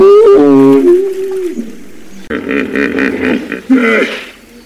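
A hippopotamus grunts and honks in a series of deep, loud, drawn-out bellows, rising and wheezing in bursts with no talk over them.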